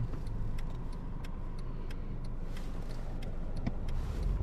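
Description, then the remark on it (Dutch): A car's low engine rumble holds steady as a car arrives in Schonebeek, with a quick series of light ticking clicks running over it. No one speaks. “Even wachten op die auto.”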